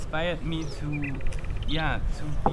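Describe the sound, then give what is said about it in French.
A nightingale sings a quick run of whistles and a rapid pulsing trill, partly blended with a voice talking over it. “Pour faire des jam sessions avec le rossignol, un oiseau qui chante vraiment bien.”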